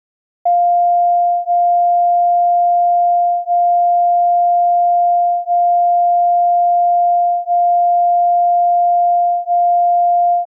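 A steady, clear sine tone with a mid pitch, swelling and dipping in loudness at a slow, regular pace of about one pulse every two seconds, like two close tones beating. No voices.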